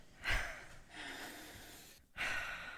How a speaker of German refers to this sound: Und nochmal atmen